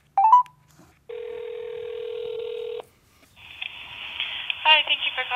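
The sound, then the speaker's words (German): A single long, steady ringback tone on an outgoing telephone call from Germany to a café, heard alone after a brief electronic chirp, then an open line with background hiss as a voice begins to answer. “Ich habe jedenfalls mal dort angerufen.”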